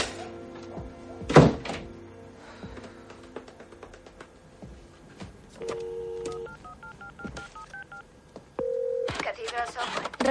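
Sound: dialing a telephone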